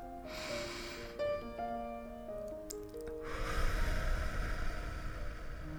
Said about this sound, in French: Tu vas fermer les yeux et te concentrer sur ta respiration. inspire par le nez et expire doucement par la bouche. Tu continues tranquillement de respirer comme ça.